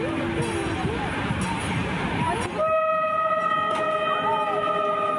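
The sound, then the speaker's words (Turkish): A train horn blares as the train approaches, in a long, steady, loud chord, starting partway through and holding to the end, after a noisy stretch of rumbling and indistinct voices. “Uyardılar, hatta görüntü çekmeye başladılar ama trenin kornası da çare olmadı.”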